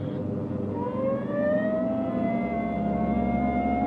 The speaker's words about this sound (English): Hit the siren. I'll get the light.